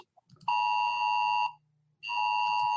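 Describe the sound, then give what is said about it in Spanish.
A telephone rings twice, each ring a steady, bright electronic tone lasting about a second, with a short pause between. It is fairly loud, with no talking over it. “teléfono.”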